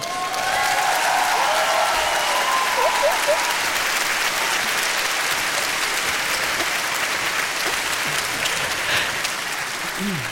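Sustained applause from a live audience at a Zirkus Krone show, a dense steady wash of clapping lasting the whole stretch, with a few faint voices and whoops rising briefly through it.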